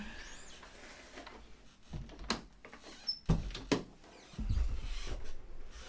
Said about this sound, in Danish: Jeg kan høre, at der er øh, vældig øh, skøn fuglekvider, men jeg tænker, at det måske godt kan blive en lille smule irriterende for dig at høre på. Jeg er ikke helt sikker på, hvor meget der kommer med i mikrofonen, så jeg lukker lige vinduerne.